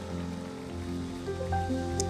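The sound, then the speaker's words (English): A church audience claps their hands to give God praise in a dense, steady wash of applause, with sustained keyboard or organ tones holding underneath. No one speaks. “Come on, let's clap our hands.”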